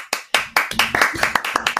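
A short burst of applause: quick, irregular hand claps from a few people, sharp and fairly loud, lasting about two seconds with no talking.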